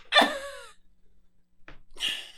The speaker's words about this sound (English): I know how to sneeze cute.